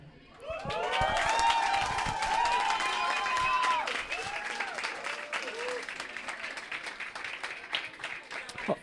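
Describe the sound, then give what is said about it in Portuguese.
A large audience at an event bursts into sustained applause with cheering and whooping voices, loud and dense at first, then easing slightly but continuing steadily to the end. “eu gostaria de pedir muito barulho pro …”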